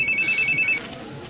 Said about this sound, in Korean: 아, 웬 전화가.